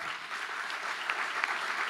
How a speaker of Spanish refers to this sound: Quiero un fuerte aplauso